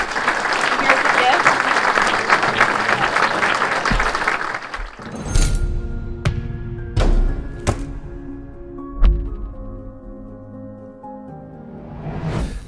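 An audience applauds a speaker after a presentation, steadily for about five seconds as a dense wash of clapping, which then cuts off, followed by a few scattered thumps and soft tonal sounds.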